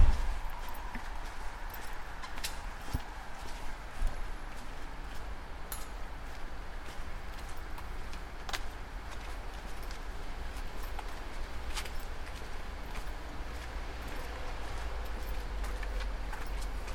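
Steady footsteps walk along a wet street in the rain in Stuttgart, from the Südheimer Platz light-rail stop to the cable car's valley station, a three-minute walk; each step a short, crisp tap in an even rhythm, over a constant low hiss of rain and traffic rumble.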